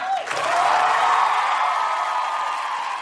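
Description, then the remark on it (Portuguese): A crowd bursts into loud, sustained applause with cheering and a few whoops as a guest is introduced to a conversation show, a dense steady roar of clapping that holds for a few seconds. “Aplaudam.”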